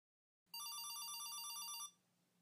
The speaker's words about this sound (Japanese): 携帯電話の音が鳴った胸元にしまってあるそれを取り出して片倉は画面に表示される発信者の名前を見た